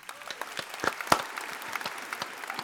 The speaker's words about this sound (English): Let's clap it out, chat.